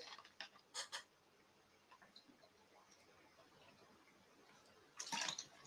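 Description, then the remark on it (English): Someone takes a quick sip of water: a few soft clicks and gulping sounds, a quiet pause, then a brief louder rustle near the end. “All right, sorry, I just need a quick drink.”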